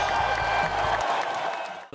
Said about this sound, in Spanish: Aplausos.